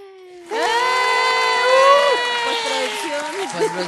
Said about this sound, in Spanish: por favor, producción. Aplausos.